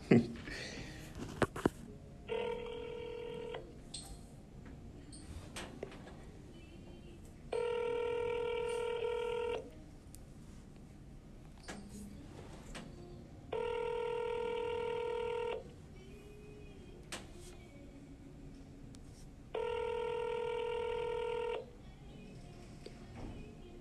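An outgoing phone call to a caller on an NFL talk show rings four times, each steady electronic ring lasting a couple of seconds with pauses between, over a faint low hum and a few small clicks.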